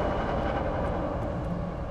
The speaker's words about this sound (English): The train passed, and the relief was palpable. If we're under the train, that means we're headed out of town.